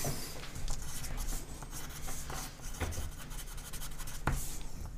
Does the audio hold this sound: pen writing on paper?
yes